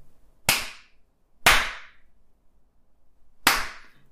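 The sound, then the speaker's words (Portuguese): Three crisp, sharp hand claps on a steady beat, an example of a children's rhythm exercise, the third delayed by a skipped beat left silent, with quiet gaps between and no voices. “Então, as crianças entenderam uma palma, duas palmas, uma próxima à outra, três palmas, quatro palmas.”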